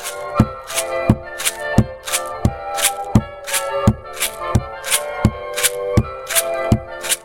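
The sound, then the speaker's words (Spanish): Homemade maracas filled with seeds or grains, shaken in a steady Colombian cumbia rhythm, crisp rattling accents repeating evenly about three times a second, fairly loud over a soft sustained musical backing. “El tercer paso es explorar el sonido y después de tener nuestro instrumento aprendimos a tocar una cumbia colombiana.”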